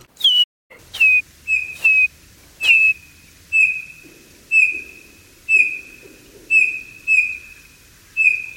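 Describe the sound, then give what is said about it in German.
A person whistles an imitation of a bird's typical call, one heard in winter, repeating a clear, sliding high note about a dozen times at a steady, slightly uneven pace, fairly loud, with no talking. “Auch der Ruf ist typisch und den kann man nun tatsächlich leicht nachpfeifen. Ich probiere das mal.”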